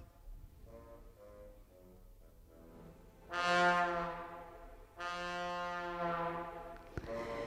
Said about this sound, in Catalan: Estem escoltant, curiosament, els glissandos del trombó que es van ser eh, qualificats de, mm, crec que és una cosa com pornosonia, sí, els crítics de l'època, sobretot els americans, i hi ha trombonistes que diuen que els crea com vergonya